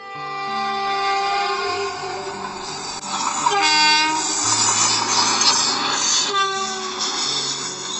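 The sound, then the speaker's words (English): A train moves away with a steady mechanical rumble and sustained horn-like tones, holding at a fairly even loudness throughout. No one speaks. “Now good morning train is going back.”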